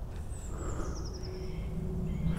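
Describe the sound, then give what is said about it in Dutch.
Faint birdsong from birds in a tree: a thin, high whistled phrase that slides downward, with a few softer calls, over a steady low outdoor rumble. No one speaks. “Die momenten van stilte dat die vogels laten. En wanneer dat die terugkomen, dat vind ik echt eh, prachtig.”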